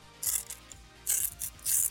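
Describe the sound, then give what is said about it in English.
Paper being torn in a few quick, rasping bursts with short pauses between them, fairly loud, with no voices. “Give me a tear.”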